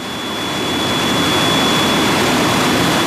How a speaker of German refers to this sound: Ein Beispiel ist diese große Maschine hier. Das ist eine Maschine, mit der man Papier trocknet, zum Beispiel für Papierhandtücher, für Küchenpapier oder Taschentücher. Sie steht im Werk der Firma Essity in Wiesbaden.